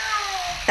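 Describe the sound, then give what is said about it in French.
A single drawn-out cat meow with a thin, steady, slightly falling tone, heard alone at moderate volume and cut off by a brief burst of noise at the end. “Alors c'est pas l'oiseau lire, c'est le chat. Il a pas aimé l'oiseau lire, le chat.”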